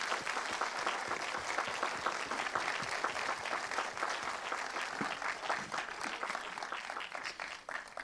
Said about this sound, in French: Moi, je vous demande de l'applaudir encore une fois.